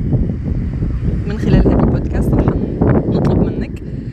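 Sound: ocean waves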